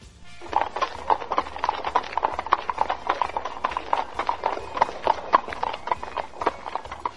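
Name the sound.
horses galloping away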